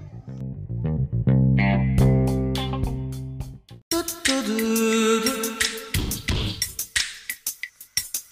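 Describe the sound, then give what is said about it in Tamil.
A short intro jingle: sustained synth chords with plucky notes, then a brighter, busier burst with crisp percussive hits, tapering off into scattered beats. Purely instrumental, no voices. “இந்த இப்போ அந்த மியூசிக் வந்துட்டு ஸோ வாங்க ஷோக்குள்ளே போகலாம்”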